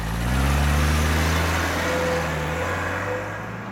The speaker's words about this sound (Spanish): nos acabamos de subir a un coche en el parking de la Plaza Mayor de Madrid.